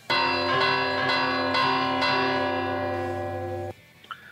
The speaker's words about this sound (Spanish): Sí, si te lanzamos nosotros las campanas desde aquí, eh, ¿nos lo puedes recitar y así hacemos un poquito de... De jajaja, De claro. Claro, sí, sí, sin problema. Pues venga, dentro campanas. Venga.